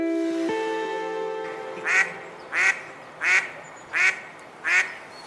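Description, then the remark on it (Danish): A mallard drake, a Danish mallard, quacks five times in a steady, evenly spaced series, each call a short raspy burst, clear, after a brief sustained tonal sound fades out at the start. “og hvis, øh, hvis det, du lige hørte, det virkede genkendeligt, så er det jo fordi, at øh, enhver øh, med lidt kendskab til natur og måske jagt, vil vide, at det her det er lyden af en dansk gråhand.”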